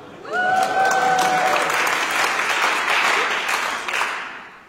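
A crowd of people breaks into sustained applause for a man, dense and steady for several seconds before tapering off, with a brief whistle or cheer rising at the start.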